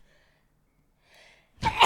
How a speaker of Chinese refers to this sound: 打喷嚏，等一下。